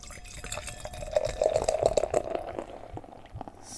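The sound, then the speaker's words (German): Beer pours and gurgles into a glass, with a bubbling, glugging flow that swells in the middle and then tapers off into fizzing. It is a clear, filtered, relatively dark orange-brown beer. No one speaks. “So, also ich glaube, man hört schon ein bisschen, wie das so schön ins Glas hineinfließt.”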